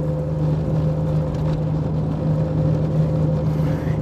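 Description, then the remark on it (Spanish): Steady low engine drone and road rumble fill the space, a constant hum with a few tonal lines, recorded inside a moving car while driving to work, with no one speaking. “Eh, si oyen un ruido raro y extraño, pues estoy grabando en mi auto de camino a mi trabajo.”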